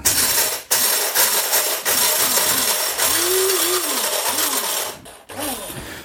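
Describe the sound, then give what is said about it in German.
A loud, continuous electric grinder whirs and rattles as it crushes two tablespoons of pepper and other dry spices, its motor pitch wavering up and down with brief pauses between bursts. “Das sind die Zutaten, die wir jetzt zerkleinern müssen.”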